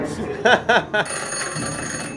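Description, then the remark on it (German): A telephone rings: three quick, bright trills in succession, then a steady, sustained ringing tone that carries on to the end, fairly loud and clear. “Telefon!”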